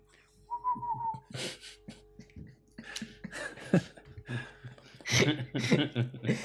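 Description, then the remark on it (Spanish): A brief, clear whistled phrase as a little intro jingle about future job opportunities, a wavering near-steady note lasting under a second, followed by bursts of chuckling and laughter. “Y hagas una musiquilla alrededor de oportunidades de empleo del futuro.”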